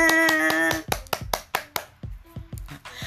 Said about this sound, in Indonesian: Nah, tepuk tangan anakku yang hebat semuanya.